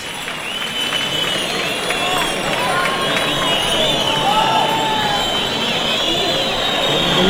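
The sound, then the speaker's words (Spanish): A large bullring crowd in Huelva clamors loudly and continuously, petitioning for an ear award for the bullfighter Manzanares, with shouts and shrill whistles rising over a dense roar that swells slightly toward the end. “Fuerte petición para Manzanares.”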